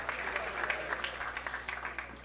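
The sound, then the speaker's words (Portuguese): An audience applauds the Lord during a sermon, a dense, steady patter of many hands clapping at once, moderately loud, sustained for a couple of seconds with no one speaking over it. “Dá um aplauso ao Senhor.”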